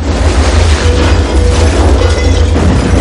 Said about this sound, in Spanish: El techo del salón se abre y una columna de fuego cae junto a John.